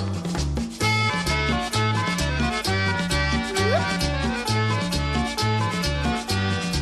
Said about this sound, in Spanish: Y ahora viene el acordeón.